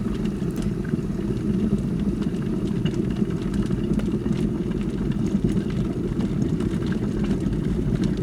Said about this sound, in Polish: A tak naprawdę to czajnik z gotującą się wodą.